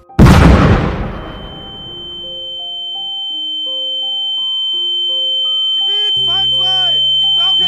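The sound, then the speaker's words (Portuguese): A tank shell explosion on a calm, cold night bursts loudly at the start and rumbles away over about a second, leaving a thin high ringing tone over soft sustained notes, with voices coming in near the end. “Foi quando uma explosão nos surpreendeu.”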